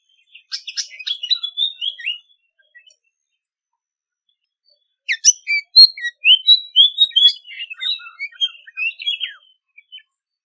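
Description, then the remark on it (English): A white-spotted fantail, also called spot-breasted fantail, sings clear, tinkling piping phrases that rise and fall, one short burst followed by a pause and then a longer, busier run of sweet notes, alone. “It is the white spotted fantail, also known as the spot breasted fantail.”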